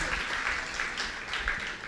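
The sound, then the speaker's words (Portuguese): Audience applause for a man who answered a question correctly: many hands clapping together in a steady, dense patter that holds at an even, moderate level for a couple of seconds, with no voices on top. “Vamos aplaudir o irmão que está do lado que acertou.”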